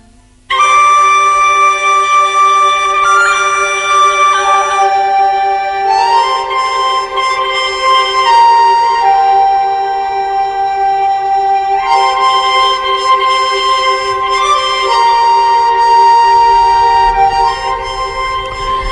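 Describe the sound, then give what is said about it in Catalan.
An instrumental music track from a musician's latest album plays loudly and steadily throughout, with sustained, bright melodic tones shifting from note to note and no voices over it. “i l'estem escoltant el eh, darrer treball”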